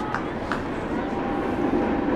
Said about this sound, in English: Third and 10 here as the old 330 rolls by on the railroad tracks outside the stadium.